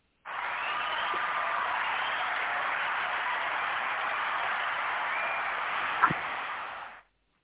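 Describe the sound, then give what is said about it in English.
A dense wash of hand clapping, a remixed 'hand clap of praise' applause drop played from sound equipment, holds at a steady level for about seven seconds, starting and cutting off abruptly, with no talking. “I love the remix. The remix hand clap of praise is the best.”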